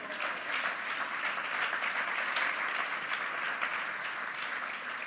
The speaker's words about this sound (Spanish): ¿Cuántos da un aplauso al Señor?